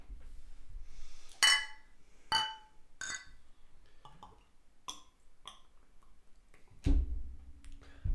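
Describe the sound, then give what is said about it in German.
Beer glasses clink together in a toast, three bright ringing taps in quick succession, followed by a few softer knocks and a low thump, with no talking. “Ähm, und wir werden mal anstoßen.”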